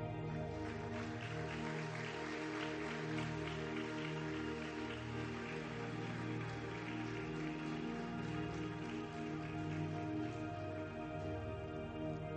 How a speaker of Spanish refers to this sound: ¿Le das un aplauso al rey?